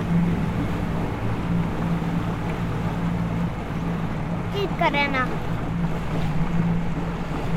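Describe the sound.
A motorboat cruises over water while people look for Saimaa ringed seals, its engine a steady low drone with wind and splashing hiss throughout; the boat rocks as it is driven; a brief spoken word cuts in near the middle.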